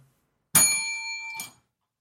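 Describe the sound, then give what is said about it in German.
A small hand bell is struck once and rings with a bright, sustained metallic tone, followed by a brief second jingle as it is moved or set down. “Ich habe auch meine Glocke gar nicht benutzt.”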